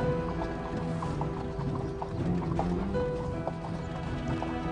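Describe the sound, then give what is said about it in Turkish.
Many horses' hooves clop in an irregular, overlapping rhythm as mounted guards lead a procession along a wide road, followed by a royal carriage with Bayazıt on a white horse beside it, a steady procession passing by with a faint rumble of movement underneath and no talking. “Önde atlı muhafızlar, arkada saltanat arabası.”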